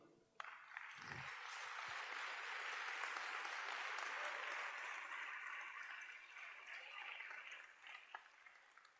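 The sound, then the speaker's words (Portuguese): A crowd breaks into steady applause that starts abruptly and holds as a dense, continuous wash of clapping for several seconds, thinning slightly toward the end. “Ninguém vai aplaudir?”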